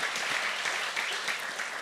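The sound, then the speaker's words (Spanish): During a sermon, a crowd applauds for the Lord, dense overlapping hand claps forming a continuous bright patter at even loudness throughout, with no voices heard. “Un aplauso, Señor.”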